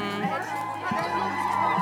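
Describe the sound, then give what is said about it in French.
A masked, costumed crowd shouting and yelling together while dancing hand in hand around a fire in celebration, a loud, continuous overlapping clamor of raised voices with no clear words, steady throughout the short stretch. “Et voilà, et on crie, on hurle, ça, ça, ça peut s'entendre.”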